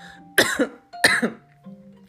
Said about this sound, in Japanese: すいません咳 が出ました